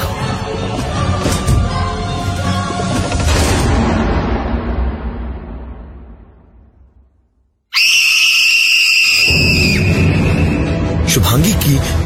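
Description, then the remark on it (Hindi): A dense, rumbling wash of sound fades almost to silence, then a sudden, loud, piercing scream cuts in and holds shrilly for several seconds. “चीख सुनाई दी मुझे”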